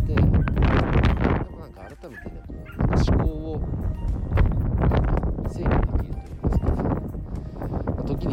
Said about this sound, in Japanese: もうワンワンの声聞こえますか すごくなんか暴れてる